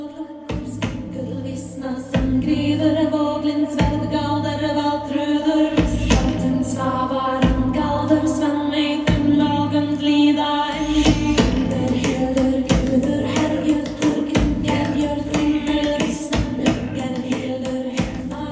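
Gongs, including a big wind gong and a dharma gong, struck by a maestro at a neighborhood gong concert as the sun goes down, hit again and again at an uneven, unhurried pace, each adding to a loud, shimmering wash of layered ringing overtones that hums and sustains throughout, with no voices.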